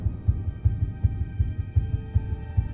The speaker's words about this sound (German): Der Puls des Mannes ist kaum noch zu spüren, Faustus Herz rast.